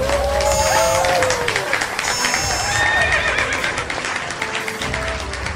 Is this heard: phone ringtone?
no